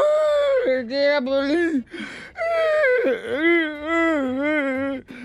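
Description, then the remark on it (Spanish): A person cries, letting out wavering, whimpering wails broken by shaky gasping breaths between them, loud and unsteady over about five seconds. “Ahora, ¿por qué lloras?”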